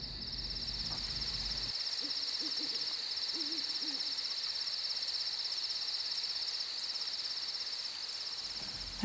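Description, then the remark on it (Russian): An owl hoots a few times in soft, low calls over a steady high chorus of insects in a quiet night forest. “Та часть дома окружена лесом, и ты надеешься услышать пение соловья или совы.”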